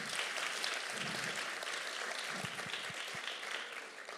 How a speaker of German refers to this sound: Ich glaube, dass die Polizei in Deutschland einen fantastischen Dienst macht. Gib doch mal einen Applaus.